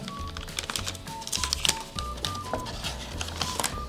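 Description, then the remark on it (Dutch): A bubble wrap envelope holding an ordered PSA 10 graded Charizard card from the Celebrations set being opened: a busy run of crinkling plastic and sharp little crackles and rustles over about four seconds, with no one speaking. “Nog weer een bubble wrap envelop, niet van karton of van papier.”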